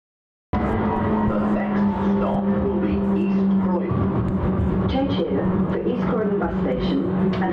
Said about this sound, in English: This is the Croydon tram.